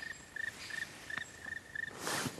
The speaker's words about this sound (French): Et Qu'est-ce qu'on entend là C'est le pic noir là qu'on entend là.